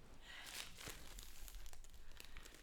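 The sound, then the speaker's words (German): Crinkling of a Milka chocolate bar wrapper, a quiet run of irregular crackles and rustles, with a few sharper bursts and no one talking. “Ist das, ist das die Milka-Schokolade, die da knistert?”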